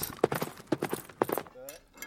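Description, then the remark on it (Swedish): Hooves of a horse being ridden on a journey clip-clop in a quick, uneven rhythm of about half a dozen hollow knocks, clear, ending in a short stretch of voice. “Han reste till fot han reste till häst.”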